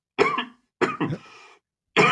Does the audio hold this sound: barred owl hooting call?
no